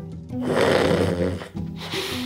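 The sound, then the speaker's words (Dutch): Loud, rattling snoring from a sleeper, two drawn-out raspy breaths with a brief pause between them and no speech. “En ik zal het zelf ook maar toegeven, ik blijk zelf ook te snurken.”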